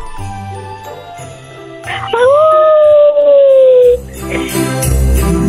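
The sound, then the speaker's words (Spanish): A person mimics a wolf with a single drawn-out howl that rises and then holds a long wavering tone for about two seconds, loud, over faint background music. “¿Puedes hacer el ruido de un lobo?”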